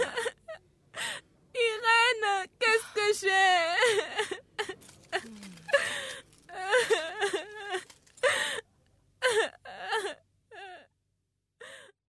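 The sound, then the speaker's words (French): A woman cries and sobs, with wavering high-pitched wails, shaky gasping breaths and broken whimpers coming in uneven bursts over about twelve seconds. “Ne pleure pas.”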